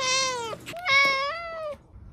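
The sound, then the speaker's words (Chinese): A black cat called Hei Bai Ba (黑白爸) meows twice while circling an elderly cat feeder's legs near a gate in the evening: a short, high call that dips at the end, then a longer, drawn-out meow that slides slightly in pitch. Both are loud and clear, with no talking. “突然，一团黑色的毛球走了出来，围绕在老伯伯的腿上不停的转圈，一群人喵喵的叫个不停。”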